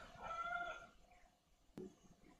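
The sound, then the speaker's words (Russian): A door creaks open with a drawn-out, wavering groan lasting under a second, followed shortly by a sharp click or knock as it settles. No voices. “А, ты имеешь в виду дверь?”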